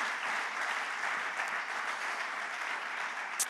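Steady, warm applause from an audience for three people, a dense wash of many hands clapping at an even, sustained level throughout, with no voices standing out.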